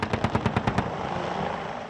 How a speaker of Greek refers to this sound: Επιθετικά ελικόπτερα εκτοξεύουν πυράβλου Hellfire.